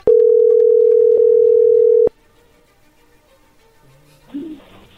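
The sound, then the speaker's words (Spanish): A steady telephone ringback tone as a call is dialed out holds for about two seconds with a brief blip midway, then cuts off, followed by faint line noise and a short muffled sound. “Ah, ok, bueno, a ver, ahí se está marcando.”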